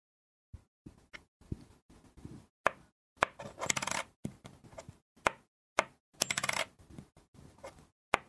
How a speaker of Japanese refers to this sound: それでは最後にもう一度500円玉の音をお聞かせします。